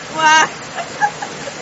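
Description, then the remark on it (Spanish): Heavy rain hisses steadily throughout, a dense, even wash of noise. A short voiced exclamation rises over it at the start, followed by a few faint vocal fragments. “Wow, espero que me estén escuchando bien porque la lluvia está bien fuerte y yo estoy que ya no puedo gritar.”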